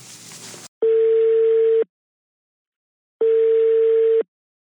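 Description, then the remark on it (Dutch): A steady telephone ringback tone sounds twice as radio hosts phone a contact at Smedes Internet, each burst about a second long with a long silent gap between, clear and prominent after a brief burst of noise at the start. “We gaan even bellen met Frank.”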